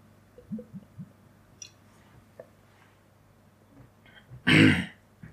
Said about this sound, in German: Ich trinke nochmal einen Schluck.